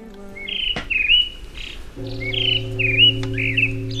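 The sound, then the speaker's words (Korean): Birds chirp and whistle in short, repeated bursts at a Buddhist temple in autumn, a few calls echoing one another over a steady low hum in the background. No one speaks. “새소리 들으니까 왠지 마음부터 편안해지지 않냐”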